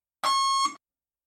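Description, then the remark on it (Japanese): A single short electronic beep from a bus stop-request buzzer, bright and steady with a clear tone and harmonics, lasting about half a second, alone with no talking around it. “お降りの方は、ブザーでお知らせください。”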